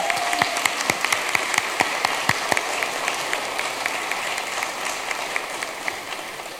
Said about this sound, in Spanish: Nuevamente tenemos el Congreso de la República liderado por el 75% de mujeres. Creo que eso merece nuevamente un aplauso.